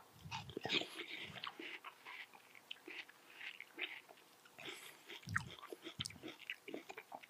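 Wet crunching of a person sitting and eating watermelon, with irregular bites and munching throughout and occasional breaths, no talking.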